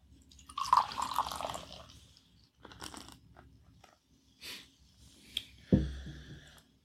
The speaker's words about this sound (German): Soll ich es dir einschenken oder magst du das machen? Bitte. Schenke ich das jetzt, ich bin ja Amateur, gerade rein? Was oder? Bier einschenken? Ja, so das ein bisschen. Danke.